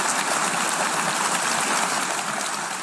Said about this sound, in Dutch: Wat er gebeurde is dat 141 landen massaal voor deze resolutie stemden. En minutenlang ging het applaus door toen dat duidelijk werd.